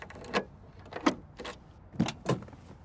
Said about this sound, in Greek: Ξεκλείδωσα την πόρτα του αυτοκινήτου μου.